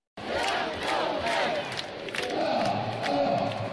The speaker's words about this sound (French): c'est là qu'ils ont battu le record du monde du plus grand AK. Alors le haka, ah c'est une célébration en rugby pour intimider l'adversaire. Nous étions le 27 septembre 2014. C'est un vieux record, mais ça tient euh, quand même. Écoutez plutôt.